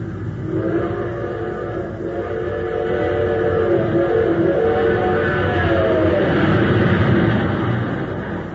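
A train roars along at speed, its steady rumble swelling louder with a rising whistle-like tone layered on top, the sound building continuously as if gathering pace.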